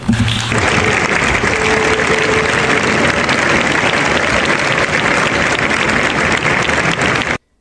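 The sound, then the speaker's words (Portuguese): Sustained audience applause, a dense, steady wash of many hands clapping at an even, loud level for about seven seconds before cutting off abruptly. “Tem que aplaudir esse climão, vagabundo.”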